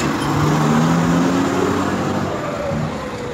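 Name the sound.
road traffic noise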